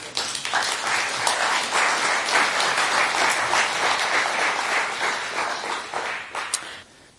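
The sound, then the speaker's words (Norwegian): An audience applauds to welcome an interpreter onto the stage, a dense wash of many hands clapping that holds at an even loudness for several seconds before tapering off near the end. “Dere kan godt gi han en applaus.”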